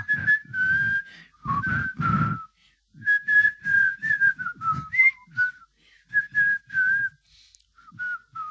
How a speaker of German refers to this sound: Wenn ich Leerlauf im Kopf habe, dann pfeife ich die MacGyver-Titelmelodie.